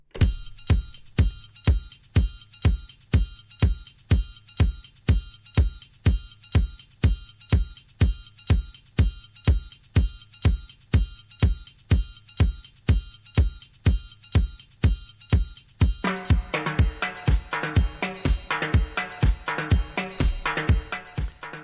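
A disco-funk bootleg track plays on its own, a steady four-on-the-floor kick thumping under sustained synth chords, with the arrangement filling out into a busier, brighter groove near the end.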